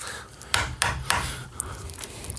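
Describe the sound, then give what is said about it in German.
Three quick knocks on wood, evenly spaced and fairly loud, followed by a couple of fainter taps, with a low background hum throughout. “Oh, wer äh, klopft da?”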